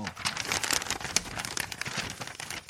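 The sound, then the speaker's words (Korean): A voice imitates a wild boar pushing through grass with a steady, crackly, breathy rustling noise lasting a few seconds, moderately loud, with no words spoken. “풀을 새치고 나오는 소리 같은 거.”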